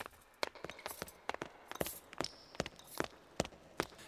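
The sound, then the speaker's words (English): Steady footsteps of an approaching soldier strike a hard floor in a hallway of an ancient castle, a dozen or so sharp impacts in an uneven walking rhythm, with no voices and only a faint high tone briefly in the background. “They could hear the footsteps of an approaching soldier.”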